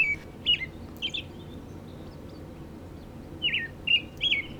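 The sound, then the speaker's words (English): A robin sings short, clear whistled phrases separated by brief pauses, moderately loud, over a low steady background rumble. “And what's the distinctive note of a robin?”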